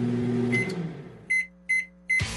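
A microwave oven hums as it runs, then gives three short, evenly spaced electronic beeps, clear and close, with no one talking.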